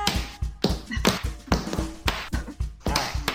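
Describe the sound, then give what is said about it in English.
Tap dancing: a run of sharp, hard clicking steps in a fairly steady rhythm, about two or three per second, some landing as quick doubles, with no one talking. “You knew that I could get the crowd to clap, but did you know that I can tap?”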